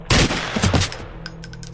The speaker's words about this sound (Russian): Снова раздался выстрел, и женщина рухнула на пол.